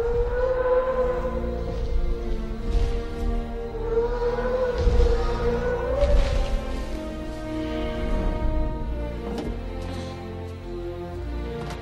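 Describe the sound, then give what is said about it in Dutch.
Deep, drawn-out moaning calls of a brachiosaurus from the film Jurassic Park, whale-like and sliding slowly in pitch, layered over a heavy low rumble. They sound loud and continue throughout, with no talking. “Het, zijn een soort eh, walvisachtige geluiden.”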